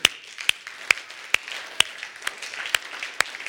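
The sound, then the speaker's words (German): A church audience applauds steadily, a soft wash of many hands with one sharp, regular clap standing out about twice a second throughout. No one speaks. “Und lass uns mal einen Applaus geben dafür.”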